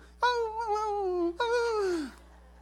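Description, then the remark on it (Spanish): A voice imitates a small chihuahua whimpering: two high, whiny tones, the first held for about a second, the second sliding downward as it fades. “como que es el más grande, el perro más grande. Ándele. Y uno chihuahuita chiquito.”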